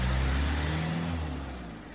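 A farmer's car engine rumbles with a low, droning hum and a brief rev, then gradually settles and fades slightly. No voices are heard.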